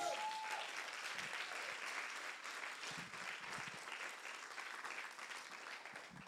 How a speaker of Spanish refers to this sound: Den un aplauso fuerte a Jesús.